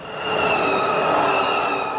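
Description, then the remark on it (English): A Swiss passenger train travelling to Davos rolls steadily along the rails, a dense mechanical rumble overlaid with thin, sustained high-pitched wheel whines, holding a constant loudness throughout with no voices. “But I know an even better way of travelling to Davos that's arguably more comfortable and much more efficient the humble Swiss train.”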